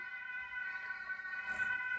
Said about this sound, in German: Wir haben eine Sirene im Hintergrund. Ein Notfall, Notfall.